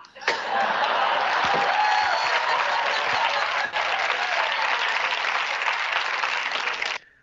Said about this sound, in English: there's not many times when there's an actual studio audience and they don't just woo or laugh. They literally clap because you said something and did something and wrote something and played it out so perfectly